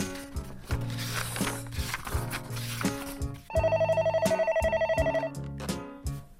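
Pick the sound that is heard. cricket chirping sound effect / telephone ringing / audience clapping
telephone ringing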